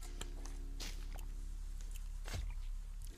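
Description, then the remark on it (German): Quiet sounds of someone taking a sip of water: a few soft clicks and handling noises, then a brief swallow, over a low steady hum with no talking. “Ich muss mal kurz ein Schluss Wasser nehmen.”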